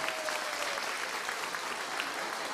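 A group applauds steadily to welcome the host's twin brother, who is called up to sing, a dense, continuous crackle of many hands clapping at an even loudness from start to finish, with no voices standing out.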